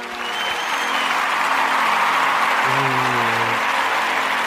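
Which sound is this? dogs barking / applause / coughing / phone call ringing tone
applause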